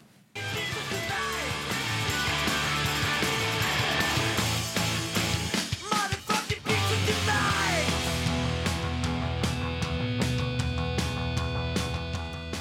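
A loud, dense rock song played from a 1990s record, with driving distorted guitars and pounding drums that stay steady except for a brief drop-out around the middle before the band crashes back in.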